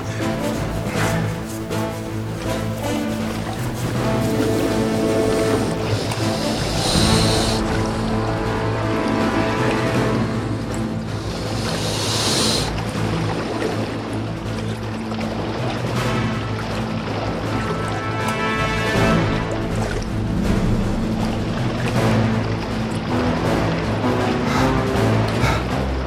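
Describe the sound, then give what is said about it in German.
Continuous churning and splashing of someone swimming through a lake, steady and fairly loud, with a couple of brief surges of heavier splashing over a low, sustained tonal bed. “Dann könnt ihr das Wasser gefahrlos durchschwimmen.”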